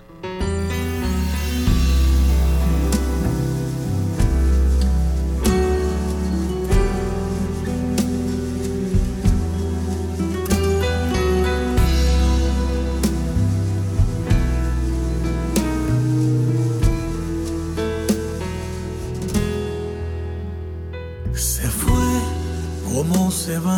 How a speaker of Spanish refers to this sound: Nos vamos a la música y seguimos hablando al ratito y pues nada, vamos a escuchar la canción que le dedica mi hermano